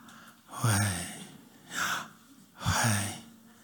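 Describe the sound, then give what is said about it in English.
A voice imitates heavy mouth breathing as when lying in bed at night: three loud, breathy inhale-exhale sounds with a raspy, gasping quality, spaced about a second apart, with no talking. “You know, but if you breathe through your mouth, when you're lying on your bed at night, you do this.”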